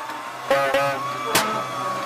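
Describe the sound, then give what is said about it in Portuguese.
A car engine roars steadily at high revs as it accelerates hard, its droning tone broken by a few sharp bursts of noise, loud with no voices. “O maluco está acelerando feito doido!”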